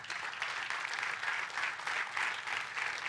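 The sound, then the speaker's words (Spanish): Sustained applause given to God by an audience during a sermon, a dense wash of many hands clapping steadily at moderate volume with gentle swells, filling the whole moment without any talking. “Si puede, déle un fuerte aplauso a Dios por eso.”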